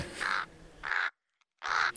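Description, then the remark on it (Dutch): Someone imitates a raven's croak with their voice: three loud, harsh, raspy caws, the first two back to back, then a short silence before the third. “Ja, ik heb eergisteren een raaf gezien. Heb je ze ooit gehoord? Ze knorren zo”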